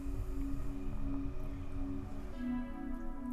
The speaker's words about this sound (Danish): Men det er altid sådan noget, øh, hvad hedder det, blidt, sådan noget flydende musik, som, som det vi hører nu. Det kommer an på, hvad for en lyd vi giver planten.